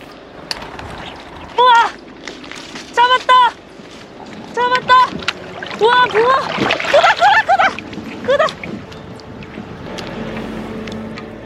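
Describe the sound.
Water splashes and churns as a small crucian carp is reeled in while fishing, with excited voices calling out in short bursts over a steady background hiss.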